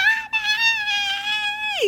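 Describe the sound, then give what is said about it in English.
A voice imitates the child Sam screaming and kicking the seat in the car: one loud, sustained, high-pitched wail lasting nearly two seconds, holding a steady pitch before dropping sharply at the end. “Cut to the car, and Sam is screaming and kicking the seat.”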